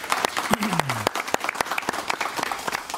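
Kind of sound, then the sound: crowd, audience applause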